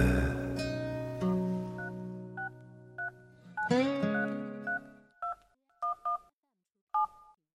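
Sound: telephone dialing tones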